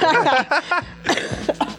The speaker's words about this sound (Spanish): Ay, mira, hasta me regresó la, la, tos porque me estoy poniendo nerviosa.